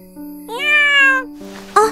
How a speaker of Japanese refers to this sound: 猫さん。野良猫かしら。